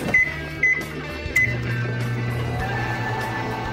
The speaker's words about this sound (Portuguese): Ah, você prefere água gelada ou normal? Bem quente. Tá bom, tá bom. Eu, eu esquento no micro-ondas.